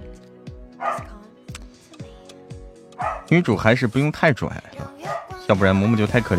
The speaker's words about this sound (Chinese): 我家的狗狗，我家的狗狗在叫啊。他在可能在呼唤我啊，在呼唤我。